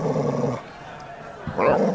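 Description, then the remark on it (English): A boxer dog gives a low, rumbling growl, goes quiet for a moment, then lets out a loud, sharp bark near the end. “Boxers are great dogs, but I love all dogs.”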